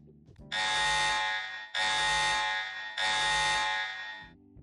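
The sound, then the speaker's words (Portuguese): A loud, harsh alarm blares in three long back-to-back blasts, each about a second long with only brief gaps between them. The buzzing tone is sharp, and no one talks over it. “Toquem os alarmes aí, que eu vou começar, como sempre, falando do nome do episódio.”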